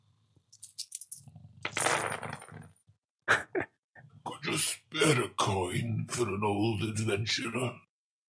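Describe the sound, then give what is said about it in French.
A deep, rasping snore from a tavern patron rumbles, then short sharp noises and a murmur of voices fill a tavern, with ale being poured into a glass, the tavern sound effects playing in parallel. “Et là, je vous raconte qu'on est dans une taverne et qu'il y a quelqu'un qui ronfle à côté de vous, vous vous versez une petite bière.”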